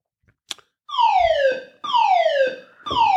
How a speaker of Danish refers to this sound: nu skal vi fandme ud igen. Brandalarmen er aktiveret.